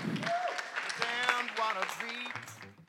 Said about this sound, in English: But we might give our wonderful guests one big more round of applause and thank you all for coming.